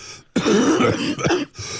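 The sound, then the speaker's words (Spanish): A harsh, raspy cough, like a croupy bark, comes in a loud burst lasting about a second, followed by a shorter second hack, with no talking. “Parece, parece la tos de Krupp que le da a los niños.”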